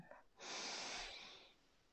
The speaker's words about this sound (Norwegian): Jeg slapper nå av i hele kroppen, puster inn.